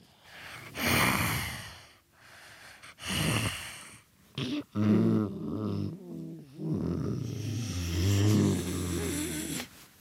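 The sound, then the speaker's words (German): A hippopotamus grunting: two loud, breathy snorts, then a long run of deep, rumbling, throaty grunts that rise and fall in pitch, with no talking over them. “Die klingen wirklich so, wie so eine Art Grunzen.”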